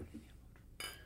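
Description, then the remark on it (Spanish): A single bright clink of wine glasses in a toast, a short sharp strike with a brief shimmering decay over a low background murmur. “Salud. tu copa.”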